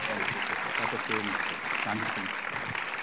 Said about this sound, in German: Und deswegen lasst ihm jetzt einen Applaus geben, öffnet eure Herzen und schön, dass du hier bist. Vielen Dank.